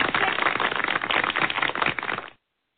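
round of applause

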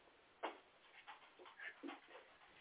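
dog whimpering

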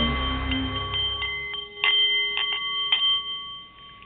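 nepalese meditation bowl chiming

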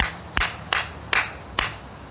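loud hand clap

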